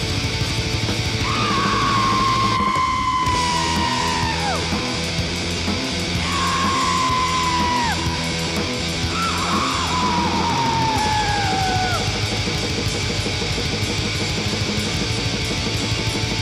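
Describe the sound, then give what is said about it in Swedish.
Black metal plays loud and dense, a harsh wall of distorted guitars and drums, with shrieked vocals cutting through in a few long, sliding screams. “Lite grisigare form av black metal.”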